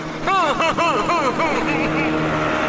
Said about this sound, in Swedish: Där kommer en båt!